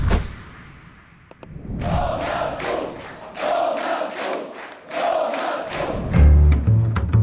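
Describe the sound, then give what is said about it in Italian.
A large crowd in Poland chants and cheers for Donald Tusk after the weekend's elections, in loud rhythmic bursts, the same short phrase repeating several times in a steady beat before the chant trails off. “Il coro che state sentendo viene dalla Polonia, dove la folla sta acclamando Donald Tusk.”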